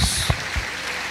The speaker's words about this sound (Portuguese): Aplauda ao Senhor.